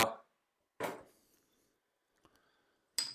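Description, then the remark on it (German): A plastic bottle of apple juice being handled and opened: a few sharp crinkling bursts with brief pauses between them, then a small click, otherwise quiet. “Achso, ich habe doch hier eine andere Plastikflasche. Ich nehme einfach die.”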